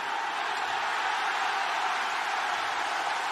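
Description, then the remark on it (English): A large crowd of wrestling fans roars and cheers in a steady, dense wash of noise that stays loud and even throughout, with no single voice standing out. “Listen to the cheer of the fans.”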